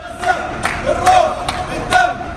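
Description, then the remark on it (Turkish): A loud crowd in Saudi Arabia cheers and chants to greet the Palestine national football team arriving for its training camp ahead of the Asian Cup, voices merging into a dense roar punctuated by sharp rhythmic beats, like claps, about twice a second. “Zor günler geçiren ülkelerini Asya Kupası'nda üçüncü kez temsil edecek futbolcular kamp için gittikleri Suudi Arabistan'da tezahüratlarla karşılandı.”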